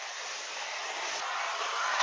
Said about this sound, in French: C'est quoi ça Aspirateur, non, je crois. C'est eh bien le moment pour les bruits d'aspirateur.